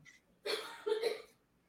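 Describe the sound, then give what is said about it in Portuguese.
A person coughs twice in quick succession, two short, harsh bursts, with quiet moments before and after and no talking. “Saúde para quem tossiu.”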